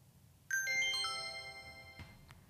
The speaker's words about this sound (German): Doch, doch, das Klingen müsste jetzt eigentlich kommen.